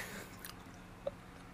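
Close-up chewing of sesame balls right at the microphone: a few soft, moist crunches and bites against a quiet background, with no talking.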